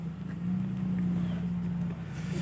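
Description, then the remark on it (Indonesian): A heavy truck hauling sand, heard at Kopi Merapi in Kaliurang; its engine drones steadily with a deep, continuous low rumble, holding fairly loud and unchanging throughout, with no one speaking. “Jadi kalau kalian dengar suara noise itu suara truk lagi ngangkutin pasir.”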